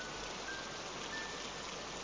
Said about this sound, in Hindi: बारिश की बूंदें काफ़ी तेज़ थी हवा भी ठंडी चल रही थी